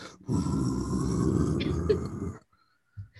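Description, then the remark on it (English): A person imitates the deep, rumbling grumble of adult crocodiles, a sustained low growl lasting about two seconds, loud, followed by silence and a brief short grunt. “And then Mama Crocs and Daddy Crocs go like they grumble. They're like,”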